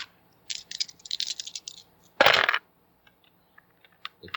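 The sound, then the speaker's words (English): Dice rattle and clatter in a quick series of hard, bright clicks as they are rolled for a spot hidden roll in a game, then one louder burst as they tumble to a stop, followed by a few faint scattered ticks. No one speaks. “Uh, give me a spot hidden roll.”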